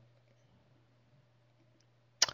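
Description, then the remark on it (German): A low steady hum, then near the end a short, sharp burst of computer mouse clicking, one or two quick clicks as someone clicks into an online forum. No one speaks. “du klickst dich jetzt rein, ich mach diese Wartezeit jetzt nicht mehr.”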